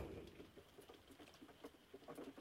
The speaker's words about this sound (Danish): Det regner